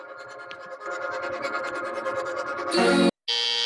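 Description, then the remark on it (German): Music plays, then a doorbell cuts in with two loud, harsh buzzing rings separated by a brief pause, drowning out the song. “die Tür hat geklingelt.”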